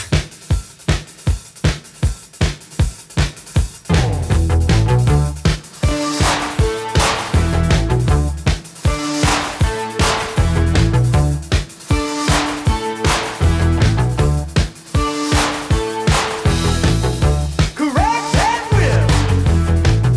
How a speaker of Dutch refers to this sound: En hij zei, ga eens naar dit nummer luisteren. Want volgens mij Gaat dat jullie helpen om jullie sound te vinden?